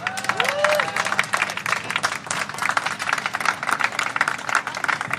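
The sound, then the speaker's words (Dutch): A crowd applauds steadily at the topping-out ceremony of the Dans Macabre building on Thursday morning, 1 February, with dense overlapping claps filling several seconds and a short whistle rising and falling near the start. “Maar nou, je hoort het aan het applaus.”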